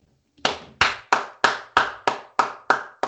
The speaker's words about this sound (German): Da applaudiere ich, da klatsche ich.